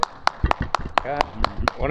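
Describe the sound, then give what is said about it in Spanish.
On the show Carrilla en la Parrilla, at the house of the young winner of the weekly contest, people clap for him in a steady, even rhythm, around eight sharp claps in two seconds, while voices talk briefly over the middle and end. “Y aquí el joven ganador, le brindamos un fuerte aplauso.”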